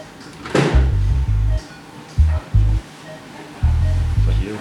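Low electronic patient monitor beeps sound in short clusters, some rapid and others spaced apart, fairly loud against a faint background hiss; the beeps slow down as the patient goes into deeper sleep.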